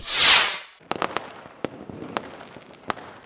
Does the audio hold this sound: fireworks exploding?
yes